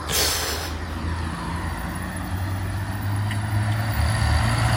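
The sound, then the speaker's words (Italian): Steady Beijing city traffic at 14:22, dominated by heavy trucks: a continuous low engine rumble and droning hum under a broad wash of road noise, with a brief hissing burst at the start and no voices. “Quello che sentite è il traffico di Pechino alle 14.22.”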